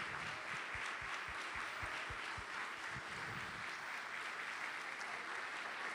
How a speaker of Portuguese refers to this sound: Então vamos dar uma salva de palmas ao autor e criador da nossa fé.